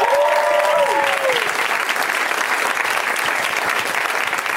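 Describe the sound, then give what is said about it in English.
An audience at a comedy show in a theater applauds the lineup of comics steadily for the whole stretch, a dense, even wash of clapping, with a brief high tonal cheer or whoop riding over it at the very start. “Let's hear it for those comics.”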